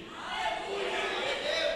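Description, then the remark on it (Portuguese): An audience shouting together during a sermon in a sustained, loud burst of overlapping voices, a dense roar of cheering that holds steady for a couple of seconds with no single voice standing out. “Calma, não grite agora, tem muito mais.”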